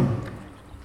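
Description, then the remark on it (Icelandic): A brief burst of shower water running after a button is pressed, in a participatory art installation, a steady hiss that begins loud with a low rumble and then settles into an even, slightly softer spray. “Ég ætla að hérna- fara aftur í sturtunum.”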